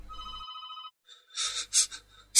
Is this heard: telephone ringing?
yes